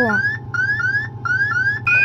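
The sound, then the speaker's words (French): A spacecraft guidance computer's program alarm 1201 during the descent to the Moon: a steady, fast series of short rising electronic tones repeating about every quarter second over a constant low mechanical hum, loud. “Alarme programme 1201.”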